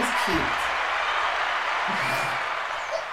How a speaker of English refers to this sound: Thank you for that clap. I needed that.